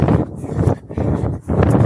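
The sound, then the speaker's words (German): Loud, rumbling, strong April wind buffets the microphone in heavy gusts while someone walks up the Plettenberg, with brief dips between blasts and a low roar dominating throughout. “Ähm, das Wetter ist ja also man hört es wahrscheinlich hier im Mikrofon. So richtiges Aprilwetter. Also es graubelt immer wieder ziemlich starker Wind.”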